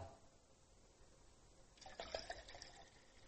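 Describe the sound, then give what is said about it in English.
After a brief near-silent pause, liquid is poured out of a container, a soft splashing and gurgling stream lasting over a second, fairly quiet, with no one speaking. “I could pour this out.”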